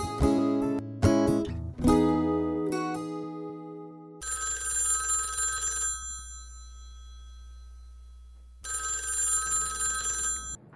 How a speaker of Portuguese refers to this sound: Aquela noite, o telefone tocou. Fiquei com medo de atender.